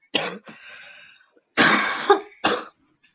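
A harsh coughing fit: three loud, raspy bursts separated by short pauses, the middle one longest and strained, with no talking.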